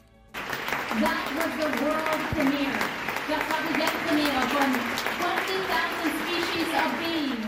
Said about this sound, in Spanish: esta ovación de 10 minutos que la berlina le ofreció a 20.000 especies de abejas tras el estreno de la cinta en sección oficial, la ópera prima de Estivaliz Urresola.